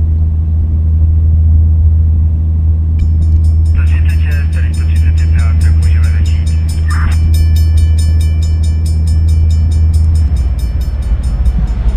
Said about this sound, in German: Ich mache nichts. Landung erfolgreich. Warte einfach nur darauf, dass das Flugzeug aufsetzt.